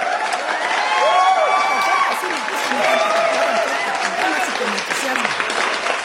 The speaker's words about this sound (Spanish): Así que ayúdenme a darle un fuerte aplauso de bienvenida a nuestra invitada del día de hoy,